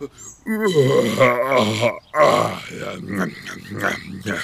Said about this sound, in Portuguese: Ah, você viu? O quê? Onde? Ou oh, cadê? Eu tô perguntando se você viu esse bocejo que você deu.